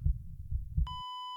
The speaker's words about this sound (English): You would have been swimming along and your heartbeat would your heart would have been going ba boom, ba boom, ba boom